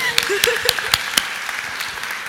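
A short burst of applause: several sharp, distinct claps stand out at the start, then blend into a steady, dense patter of clapping hands at moderate volume, with no one speaking.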